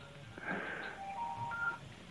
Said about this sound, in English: the phone call that you hear coming across my cell phone is from another person on Webmaster Radio